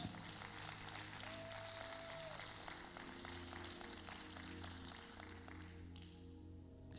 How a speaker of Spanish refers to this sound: Sí, un aplauso para nuestros pastores.